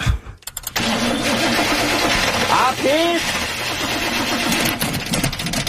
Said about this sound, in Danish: Jeg kan ikke komme. Min bil kan ikke starte.